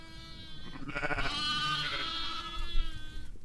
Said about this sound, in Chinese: 这就是小羊发出的声音哦。It's the sound of a lamb，是不是很可爱、很特别呢？